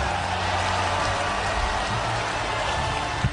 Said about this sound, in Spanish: Gracias, esos aplausos no me los merezco, pero ahora aplaudan por favor a los nominados.